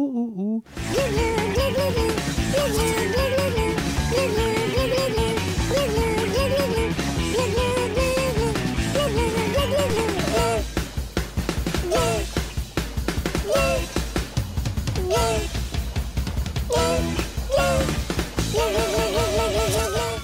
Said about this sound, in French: c'est la chanson phare du premier Kill Bill, ça lui fait ouhou,